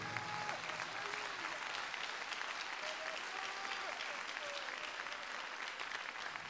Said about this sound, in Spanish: A su nombre, hermano. Dele fuertes palmas al Señor.